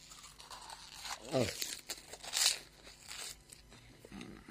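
Crinkling of a plastic snack bag followed by crunching of crisps being chewed as someone takes a few into their mouth, with a few sharp rustling bursts and a short murmured vocal sound in between.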